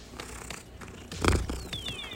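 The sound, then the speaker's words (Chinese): The speaker's cat, sitting on a person's head, purrs in a low, steady rumble that swells louder about halfway through, with faint thin squeaky tones near the end and no one talking. “平静的说了一句：“我的猫现在正在摇。”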